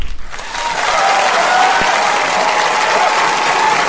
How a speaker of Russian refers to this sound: Бурные овации. Это вы нас встречаете, я уверена.